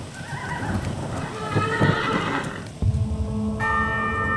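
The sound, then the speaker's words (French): A horse whinnies loudly over a steady clatter of hooves during a journey made entirely on horseback, with a bell tolling in the background toward the end. No one speaks. “L'épopée, entièrement réalisée à cheval, dure 11 jours.”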